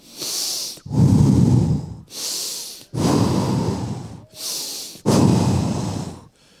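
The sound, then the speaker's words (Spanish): A voice imitates heavy breathing in someone's ear: three loud cycles, each a sharp hissing inhale followed by a long, rough, rushing exhale, with no talking. “me empiezan a respirar en el oído, hermano.”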